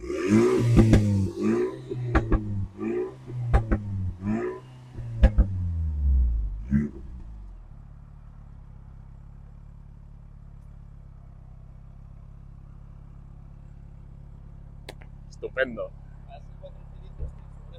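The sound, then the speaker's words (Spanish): A warmed-up four-cylinder sports car engine with a 3D-designed exhaust blips through several quick, loud revs that rise and fall in pitch, with sharp crackles between them, then drops to a low, steady idle rumble. “Para ser cuatro cilindros tiene su gracia, la verdad.”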